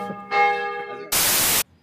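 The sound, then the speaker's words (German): A single gong strike rings out with a bright, shimmering metallic tone that sustains for under a second, then is cut off by a loud, abrupt burst of static hiss. “Gong Show, oder? Welcome to the Gong Show.”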